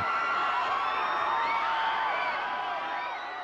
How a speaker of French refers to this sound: Le 7 mai, soir de la projection, Michael Jackson monte les marches du palais des festivals. Et sur les trottoirs, les badauds hurlent